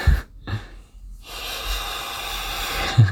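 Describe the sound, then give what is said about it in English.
A person softly imitates a cat's hiss, a sustained breathy hiss lasting a couple of seconds after a few short snorting breaths, kept quiet. “If I went full volume, I would have had a better hiss.”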